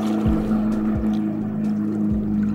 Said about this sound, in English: Last summer, I was lucky enough to go on a kayak trip just off the coast of the Greek island of Lefkas. As we paddled through the water, the silence was disturbed by a huge speedboat passing at high velocity.